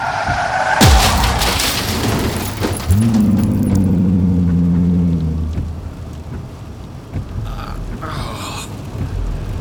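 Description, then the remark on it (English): During a rainstorm, a car on a road swerves with a sharp swooping skid to avoid a big black shape scurrying across, followed by a jolt as it hits it and a long droning engine whine, all over steady rain with a low rumble in the background. “I, I swerved to avoid it, but to no avail. I still hit it, whatever it was.”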